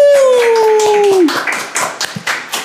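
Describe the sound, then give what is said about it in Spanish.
Brisk, uneven applause from a small group welcoming a guest rapper, sharp claps throughout, with a long falling vocal whoop over the first half before the clapping carries on alone. “Vamos a darle un aplauso y una bienvenida a”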